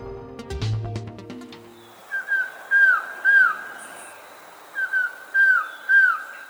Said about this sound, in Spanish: Estamos escuchando a un pájaro que en Colombia se llama trogón collarejo, pero en Centroamérica tiene otros nombres. Mide 25 centímetros y el macho tiene pico amarillo, cara y garganta negruzca